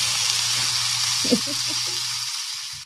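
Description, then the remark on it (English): A sizzling sound effect: a steady, bright sizzling hiss runs throughout, like food frying in a hot pan, with a low hum beneath and faint murmuring voices briefly in the middle before it cuts off. “Sizzling hot takes.”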